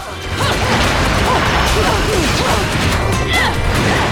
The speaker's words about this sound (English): Um, Whoa. We're dodging. They're punching and kicking.